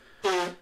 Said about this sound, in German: Äh, Gesundheit. Ja. Ähm, aber ich nies gar nicht, es ist tatsächlich Schnauben. Ich weiß, ich weiß.